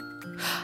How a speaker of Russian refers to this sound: Я с ней познакомился совершенно случайно, когда чихал. Стер с книжки пыль и чихнул.